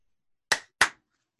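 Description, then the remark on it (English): Two sharp hand claps in quick succession, made to line up the audio, each a crisp, bright slap with a short decay, set against silence, with only a tiny faint tick afterward. “Should we clap to line up the audio?”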